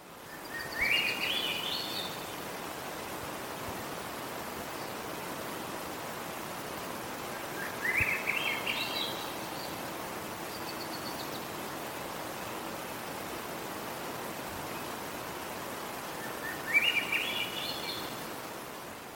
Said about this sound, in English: So that was his recording of Swainson's thrush, yeah. and they were just calling and calling and calling, which is my favorite bird call. It's so. the sound of summer in Oregon.